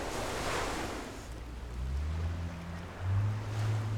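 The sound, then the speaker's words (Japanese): Steady ocean surf washes in on a shore beside a burning bonfire with a broad, rushing hiss, swelling slightly near the end, while low wind rumble buffets underneath; no one speaks. “あとこの波の音とを聞きながら燃える火を見てるっていいですね。”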